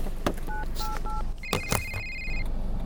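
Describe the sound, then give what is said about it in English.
A phone being dialed to call the police: three quick keypad tones in a row, followed by a clicking handling noise and a longer, higher electronic tone, all clear over a steady background hum. “I'll phone the police.”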